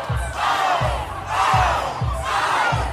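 A crowd of students cheers and screams wildly at a dance off between a 13-year-old student and his eighth grade teacher, a dense, loud roar of young voices that surges in waves, with a steady rhythmic thumping beat pulsing underneath.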